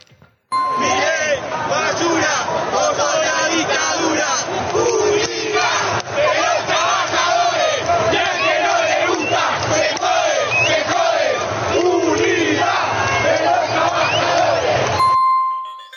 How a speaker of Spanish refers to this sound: Bueno, si sonaban las calles, esta fue de la manifestación de la tarde. Eh, después fueron llegando más y más personas diciéndole, no somos la casta, ¿no? la gente en la calle gritando, no somos la casta.